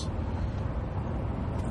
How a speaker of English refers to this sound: I'm actually driving in my car right now. I'm on 231, heading north, doing about 70. So there should be some background noise